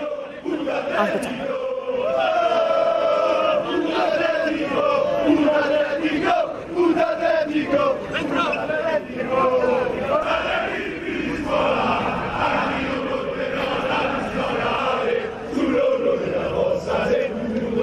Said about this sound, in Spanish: Bueno, y atención porque esta tarde hemos visto en la ciudad de Madrid muchos ultras, muchos aficionados del la y esto es lo que ha pasado por Madrid. Vamos a verlo. Ojito, ¿eh? Ahí veíamos a los aficionados del rival del Atlético de Madrid.